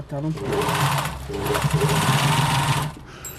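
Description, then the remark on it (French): A sewing machine runs loud in a steady, rapid whir for about three seconds, briefly slowing midway, then stops abruptly, as a made-to-measure garment is altered, taken in to fit a client. “Donc j'essaye de retoucher pour serrer un peu pour elle, la cliente.”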